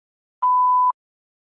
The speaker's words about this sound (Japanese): メッセージは発信音の後にどうぞ。